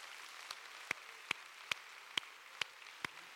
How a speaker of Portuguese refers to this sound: Pode aplaudir mais forte, tem que ser mais forte.